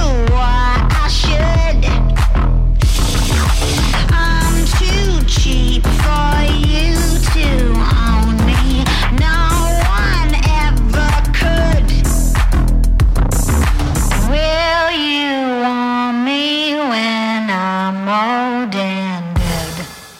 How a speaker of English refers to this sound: Uh, I love the distortion on the vocals. Uh, you run it through a, like a guitar fuzz pack or something.